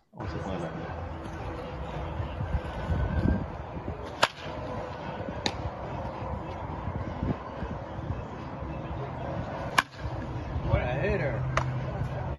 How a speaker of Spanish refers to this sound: Quiero poner aquí eh, un clip de él en, las prácticas de bateo, ¿verdad? Y ustedes pueden escuchar cómo se escucha ese bate.